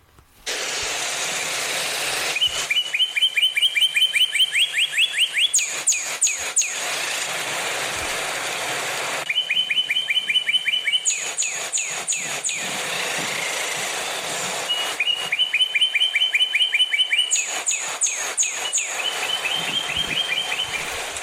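A northern cardinal sings loud, clear phrases of rapid down-slurred whistles, each run speeding into a quick series, repeated in bursts every few seconds over a steady background hiss.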